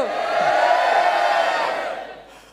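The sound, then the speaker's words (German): A church audience shouts "Oh!" together in one loud, sustained burst of many voices, holding for about two seconds before trailing off. “Lass uns mal schreien.”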